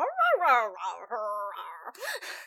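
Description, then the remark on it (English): A person vocally imitates wolf conversation with a run of rising and falling howls, whines and yips, loud, ending in a couple of breathy, growly bursts; no words are spoken. “You just sort of hear, like, I, I, think I'm still a wolf until the others arrive, at least, so you just hear, like, wolf conversation.”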